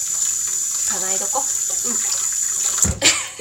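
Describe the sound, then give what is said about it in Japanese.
Steady running water from a tap while washing dishes fills the background throughout, with a few soft clinks and a brief louder splash near the end; faint voice-like tones surface briefly underneath. “さっきわーって喋ってお皿今日お皿洗いをしながら雑談というか推しの誕生日まあ昨日だったんですけど祝う会でございます”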